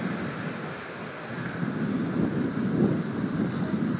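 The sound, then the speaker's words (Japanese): A steady, rushing roar of ocean waves on the shore, with a gentle swell midway and strong wind noise blending in; no one speaks. “でもなんか心安らぎますね、こういうとこで波の音を聞いてると。”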